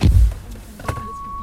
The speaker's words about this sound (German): Ja, wir haben nämlich den Piep-Auto bekommen.